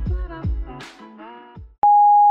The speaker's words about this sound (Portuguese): Chegou à caixa de correio de Telerrelação. Ouça as nossas confissões após o sinal.